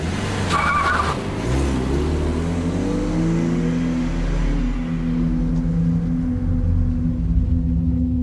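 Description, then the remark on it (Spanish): A Tesla car is started with the ignition key, pulls out of a parking space and merges into flowing traffic in Barcelona: the engine roars loudly, tires squealing briefly at the start, then a steady low rumble as it accelerates and pulls away, with no voices. “Gira la llave del contacto, sale del aparcamiento y con una ágil maniobra se incorpora al fluido tráfico de la capital catalana.”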